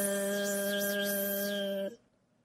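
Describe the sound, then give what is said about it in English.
Bees buzzing around a hive in Grandpa Pig's garden: a loud, steady droning buzz that holds one even pitch for about two seconds, then cuts off abruptly into near silence. No one talks. “What's that buzzing sound?”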